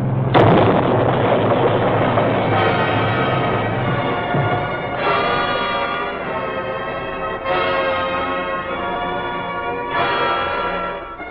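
A plane about to take off slams into a car in its path with a sudden loud crash, followed by ringing metallic clangs that recur about every two and a half seconds as the wreckage settles. No one speaks.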